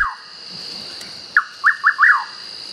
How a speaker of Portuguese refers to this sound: mas o João Corta-Pau é esse canto que vocês estão vendo aí que é fantástico. Ele fala literalmente João Corta-Pau.